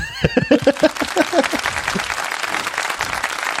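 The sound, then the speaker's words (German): An applause sound effect played from a soundboard: a burst of crowd applause, dense and steady clapping that fills the whole clip, with a voice laughing or calling out over the first second or so before the clapping carries on alone. “einen Applaus.”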